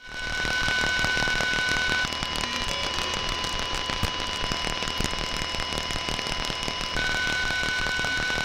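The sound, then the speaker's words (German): RFID reader and transponder radio communication made audible by holding a special receiver to it: loud, continuous crackling static with rapid stuttering clicks and a steady electronic tone that drops out midway and returns near the end. “Es klingt so ein bisschen aus einer Mischung nach altem Radio und fehlendem Programm, irgendwie ein bisschen Morsezeichen, boop, boop, boop, irgendwie zwischendrin.”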